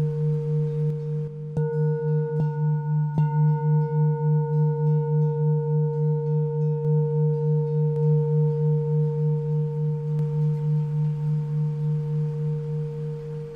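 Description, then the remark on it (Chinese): A heavier, larger old handmade singing bowl rings with a deep, sustained hum that wavers in a slow, steady pulse. Bright overtones shimmer above it, and a few soft taps come early on. No one speaks. “我们看看， 对啊， 比较重一点， 重一点的，比较大一点的。这个是老钵说， 我觉得声音好像会。”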